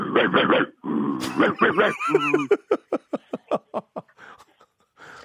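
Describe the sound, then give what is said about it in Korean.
A game show contestant imitates a flat-faced bulldog barking with gruff, growly barks and grunts, starting in a few throaty bursts, then a string of short, rapid huffing barks that gradually fade out. “예, 불독, 불독이 짖는 소리?”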